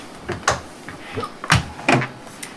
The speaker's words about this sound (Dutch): Ben je er klaar voor? Ik ga de deur dicht doen.